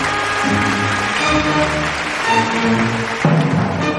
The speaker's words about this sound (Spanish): Las otras dos asistentes separan las dos mitades de la caja y el mago pasa entre ellas recibiendo los aplausos del auditorio.